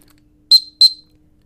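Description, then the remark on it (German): A standard dog recall whistle signal: two short, shrill whistle blasts in quick succession, loud, each a piercing high tone with a brief tail, separated by a short gap in otherwise quiet surroundings. “Der Kompfiff ist normalerweise ein Tutut.”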